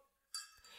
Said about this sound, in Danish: Jeg synes, øh, at vi øh, blev, og vi blev faktisk nødt til at trække en, en, en flaske rosé op. Ja. Nu siger vi det som det er. Det lyder sådan her. Skål. Skål.